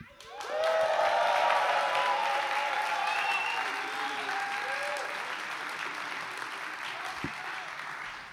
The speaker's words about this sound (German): allen Podcast-Hörern einen fetten Applaus, einen fetten Gruß zukommen lassen. Also brüllt mal, seid mal laut